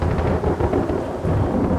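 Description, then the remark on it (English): A deep, rolling rumble of thunder fills the whole moment, loud and continuous with a low, heavy roar and a faint hiss like rain underneath; no one speaks. “Don't don't no thunder.”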